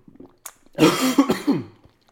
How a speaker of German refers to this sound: ah, sehen Sie, habe ich mich gleich dran verschluckt